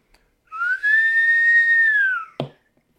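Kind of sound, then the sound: human body sound, human whistling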